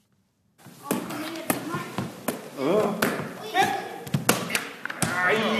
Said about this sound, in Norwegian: Det er stor vinnervilje og høyt nivå på volleyballtreninga hos Porsgrunn handikapidrettslag.